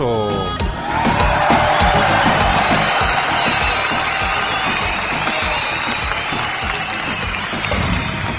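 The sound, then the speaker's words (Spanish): Loud, sustained applause from a large audience for a radio programme's production team, with scattered cheers and whoops, steady clapping texture lasting several seconds after a brief voice at the start. “Para todos ellos, público conocedor, fuerte el aplauso.”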